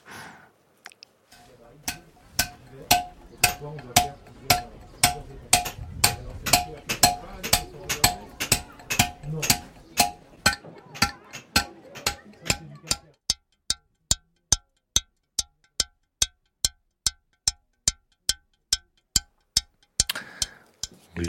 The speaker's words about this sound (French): Alors là, moi, j'ai cru reconnaître. Ça tape, c'est régulier. C'est même euh, rythmé d'une façon très précise. C'est une taille de pierre, non Voilà, euh, c'est les tailleurs de pierre